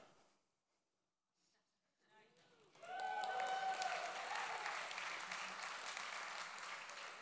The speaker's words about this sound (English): Keep the claps going.